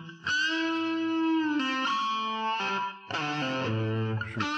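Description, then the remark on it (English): A solo electric guitar plays sustained, heavily distorted notes with an effects-laden, shimmering tone, shifting through several held pitches and bends with no voices present. “It's the last guitar.”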